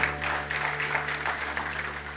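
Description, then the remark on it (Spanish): An audience applauds loudly in praise of Christ during a church sermon, a dense, steady wash of many hands clapping with no pauses, over a low constant hum, without voices standing out. “Denle ese aplauso fuerte a Cristo, porque Él es bueno.”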